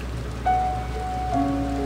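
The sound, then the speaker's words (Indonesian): Heavy October rain falls steadily on a hard surface, a continuous hiss of pattering drops. A few faint sustained tones sound briefly over it. No one speaks. “Tapi tahun ini, hujan mengadakan perhelatan besar-besaran di bulan Oktober.”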